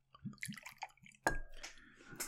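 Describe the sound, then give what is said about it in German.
Liquor glugs and splashes as it is poured into a glass, with a series of gurgling drips followed by a brighter clink and continued trickling, fairly quiet. “Also das ist ein edler Tropfen. Ja, mal ein bisschen, ein bisschen die Luft aus dem Glas lassen, ne?”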